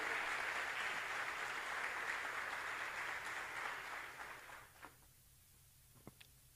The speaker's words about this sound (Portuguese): Pode dar um aplauso mesmo ao Senhor.